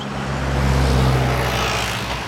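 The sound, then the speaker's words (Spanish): Heavy trucks rumble past on a road in the Comunidad de Madrid, the deep engine drone steady and loud, swelling slightly mid-pass. No voices are heard. “Desde que estamos aquí, no han parado de circular camiones, y eso se empieza a notar en nuestros pulmones.”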